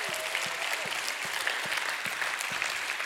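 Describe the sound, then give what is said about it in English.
A church audience breaks into steady, sustained hand clapping as praise to God, dense and continuous, with faint voices shouting praise beneath the applause for a few seconds. “If you need a good dose of the Holy Ghost, why don't you give God a hand clap and a shout of praise?”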